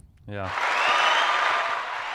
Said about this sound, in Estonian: oota, siin on ju aplausi väärt see võistkond oli praegu.